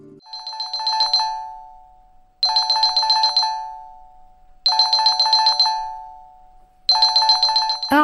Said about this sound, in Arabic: عادها رنين الهاتف إلى الواقع مرة أخرى كان الاتصال من زوجها ولكن المتصل لم يكن زوجها بل كان ابنها